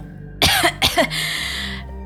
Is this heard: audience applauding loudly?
no